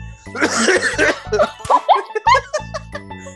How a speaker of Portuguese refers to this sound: Agora vem a risada com a tosse também.